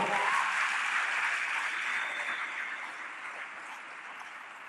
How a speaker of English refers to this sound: If you decide to clap, clap to the Lord.